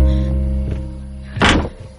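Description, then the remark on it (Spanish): A caravan door opens with a dull thunk and a brief rattling scrape as a woman walks up and enters, set against a steady low hum, with a softer knock just before it. “Abre la puerta y entra.”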